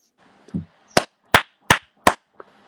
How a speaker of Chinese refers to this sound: 嗯，听到我的掌声了没有？